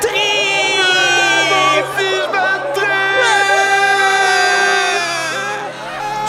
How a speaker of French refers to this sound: En entendant ces mots, toute la foule se disperse dans la peur.